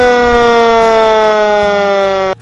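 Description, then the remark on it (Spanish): A loud fire engine siren wails steadily, its tone sliding slowly downward over a couple of seconds, alone with no voices. “Y de aquel simple papelito en la puerta, llegaron a llamar a una banda de música, a una sirena de bomberos.”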